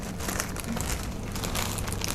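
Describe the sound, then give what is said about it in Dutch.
A small plastic bag being crinkled and handled, a steady stream of crackly, papery rustling with no pauses, fairly loud throughout. “Wat is dit voor een zakje? Waar, wat, wat zat hierin?”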